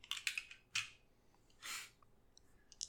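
Two six-sided dice are rolled in a tabletop role-playing game: a quick burst of sharp clicks as they tumble, a brief rattling swish, then a few last light taps as they settle on snake eyes. No one speaks.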